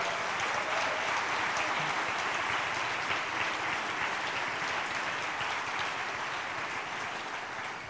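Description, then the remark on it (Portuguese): A crowd applauds steadily throughout, a dense wash of many hands clapping with no pauses, holding loud and even before easing slightly at the very end. The audience is applauding the Lord for the lives of the band's musicians. “Então, eu queria que vocês dessem um aplauso ao Senhor pela vida deles.”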